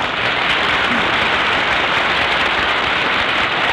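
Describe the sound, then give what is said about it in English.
A dense, steady wash of audience applause in San Francisco welcoming Mary, many hands clapping at once with no clear rhythm, loud and even throughout with no voices standing out. “You hear that? Hmm? Hey, that's a nice hand you got there, Mary.”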